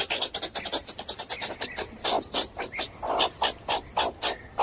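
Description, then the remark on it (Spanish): Meerkat alarm calls: a rapid, harsh series of raspy chirps repeated many times in quick irregular rhythm, fairly loud, with no talking. “Nos estamos refiriendo, ya se lo adelantábamos ayer, a los suricatos.”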